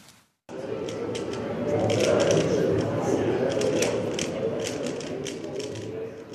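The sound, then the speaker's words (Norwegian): Rapid, continuous plastic clicking and clacking as a colourful little plastic Rubik's cube is twisted quickly by fast fingers, fairly loud, with a steady busy rhythm and a low murmur of background noise. “Dette er lyden av intens konsentrasjon og raske fingre.”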